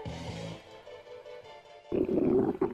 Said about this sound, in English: That's not your car no, that's your stomach telling you it's time to eat.